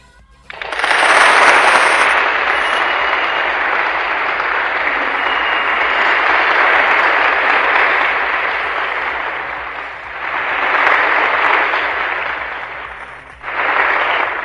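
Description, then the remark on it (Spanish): An audience on Bata CM Radio bursts into sustained applause, a dense crackle of many hands clapping loudly for about twelve seconds, easing slightly before a brief dip and a final swell. “Aplausos, por favor.”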